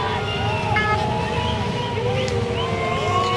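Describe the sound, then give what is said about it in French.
Several motorcycle engines of the BRAV-M police motorcycle unit rumble as the bikes arrive during an intersyndicale union protest day, their pitch rising and falling as they rev and roll in together, over a steady background hum of the street. “Là, je prenais le son de la Bravem et des gens qui bah, c'était pas, on l'a euh, eu dans les oreilles.”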